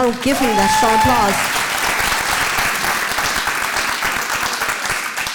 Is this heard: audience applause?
yes